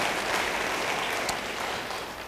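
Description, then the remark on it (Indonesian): A crowd claps steadily, a dense, even wash of many hands at constant loudness throughout, with no voices standing out. “Yang mau beri tepuk tangan yang meriah bagi dia.”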